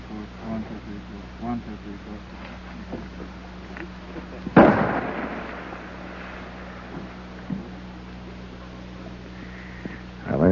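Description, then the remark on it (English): A loud big game rifle shot, fired in Alaska at targets set about 150 to 200 yards away, cracks out midway and echoes away, followed by another sharp report at the very end, over a steady low hum and faint background activity. “That's the sound of a big game rifle being fired right here in the heart of Alaska.”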